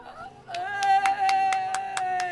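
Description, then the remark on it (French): Rhythmic clapping in a steady beat, about eight sharp claps, as villagers applaud a donor at a village money collection, over a sustained sung or played tone that continues throughout at moderate loudness. “Allez, applaudissez, applaudissez eh, applaudissez”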